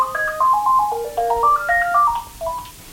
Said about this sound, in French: On, on est en- au resto zinc, voilà, le téléphone sonne. Je loupe peut-être des réservations.